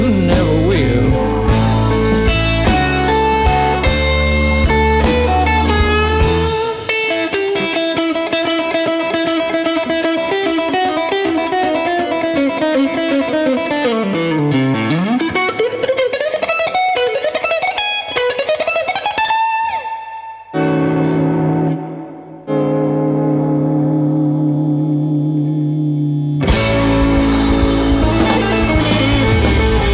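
blues song recording

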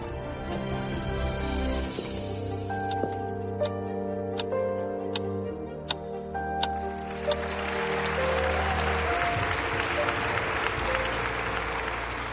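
applause

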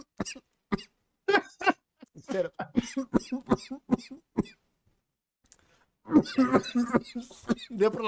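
repeated coughing

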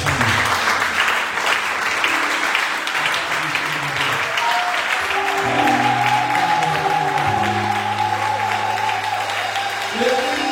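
audience applauding and cheering

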